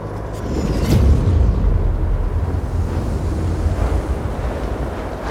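Strong wind roars steadily throughout on the mountain top Storeballak, loud, with heavy low rumbling gusts buffeting the microphone and a constant hiss; no voices are heard.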